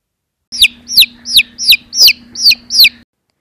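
A baby chick chirps seven times in a quick, steady rhythm, each peep a bright, high, downward-sliding note, fairly loud over a faint low hum.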